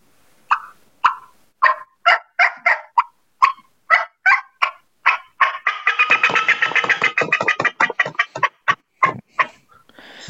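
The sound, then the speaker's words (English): A turkey hen's fly-down cackle: a rapid, uneven run of sharp clucks and cuts that speeds into a dense burst, then trails off in a few spaced clucks. Loud, no talking. “fly down cackle. That's a series of bubble clucks and cuts, and letting them know I'm hitting the ground.”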